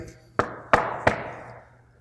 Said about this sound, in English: and there's a knock at the door. And you open the door,